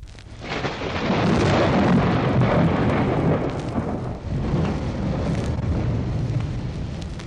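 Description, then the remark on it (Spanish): A deep, heavy thunder rumble rolls in after a brief quiet start and stays loud and sustained, crackling and booming with a faint rain-like hiss underneath. “Cinco años tardó el hielo en derretirse alrededor de él hasta que todo se deshizo, y el elefante cayó rodando a la orilla con ruido de trueno.”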